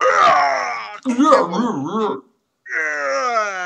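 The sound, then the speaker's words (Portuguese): Arnold Schwarzenegger in a film scene lets out a strained, choked scream, as if drawn inward, in loud bursts: a long cry, a wavering, shaky stretch, then after a short silence another sustained yell. “esse grito dele pra dentro que ninguém puxou o pelo do saco.”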